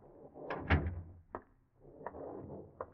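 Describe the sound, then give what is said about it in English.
A door is opened and shut: a cluster of knocks and a latch rattle, then a few lighter clicks and clunks spaced out over the next seconds, with no voices. “Get up your nerve as you slip in the back door and sneak up the stairs.”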